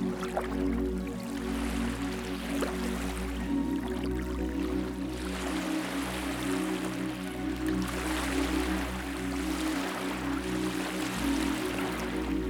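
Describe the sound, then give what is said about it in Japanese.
Gentle ocean waves wash in and recede in slow, rolling swells, a soft steady hiss rising and falling every few seconds over a low, sustained ambient drone. “ひいては返すこの波があなたの心を洗い流していきます”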